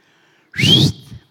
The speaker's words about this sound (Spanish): Les chifla y les dice, este es todo mi chiflido que aprendí de niño y lo que aprendiste de niño ya difícil que lo cambies de viejo.